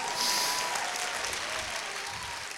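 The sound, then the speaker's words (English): An audience claps hands in a dense, steady wash of applause, loud and continuous with no distinct individual beats, while a faint high tone rings briefly near the start. “Somebody clap your hands and get blessed.”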